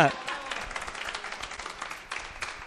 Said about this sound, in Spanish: Fuerte el aplauso para los dos.